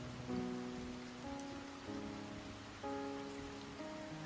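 Steady rain patters on a surface as a continuous soft hiss, blended with gentle sustained musical chords that shift every second or so; no voices are heard.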